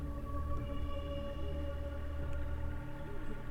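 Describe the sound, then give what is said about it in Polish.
An eerie human howl coming from above, long and drawn-out, holding steady wavering tones with a hollow, moaning quality that fills the whole stretch without a break, close and fairly loud with no talking. “Włoski stają tęba, ale to jest ludzkie wycie.”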